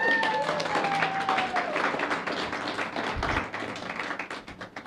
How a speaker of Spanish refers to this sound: Dale un aplauso a Dios.